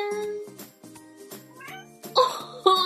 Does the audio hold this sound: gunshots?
no